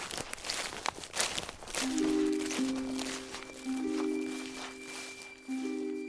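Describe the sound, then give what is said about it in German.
Quick footsteps crunch steadily over dry ground as someone walks into a forest carrying a boy on his shoulders. After a couple of seconds, soft sustained musical tones rise underneath while the brisk steps carry on. “Der wilde Mann kehrte um, hob ihn auf seine Schultern und ging mit schnellen Schritten in den Wald hinein.”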